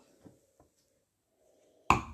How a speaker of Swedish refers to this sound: Nu hör ni bara massa sniffande här. Det får ni stå ut med.